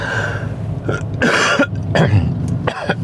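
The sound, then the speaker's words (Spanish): A person coughs several times in a rough, throaty fit: harsh bursts, uneven in spacing, with a gravelly, phlegmy edge and no talking. “Ay, qué asco de tos, de verdad.”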